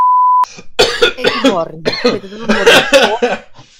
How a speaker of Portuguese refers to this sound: Cara, essa tosse eu tô bem melhor que ontem.